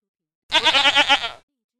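A single goat bleat, fairly loud, with a wavering, quavering tremble lasting about a second, heard alone with silence before and after.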